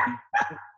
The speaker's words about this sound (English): and that is my dog